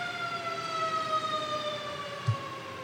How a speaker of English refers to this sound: We got Charlottesville's finest and uh, the fire department going by. Hold on one second.